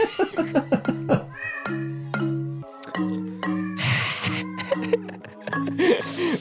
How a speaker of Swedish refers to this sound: och så hör jag plötsligt liksom ett, ett märkligt ljud ja. komma bakifrån mig. Liksom Eh, det är liksom så här... och så tittar jag bak. Eh, eh, och då, så ser jag ju då att mina två katter som är syskon eh, har sex med varandra.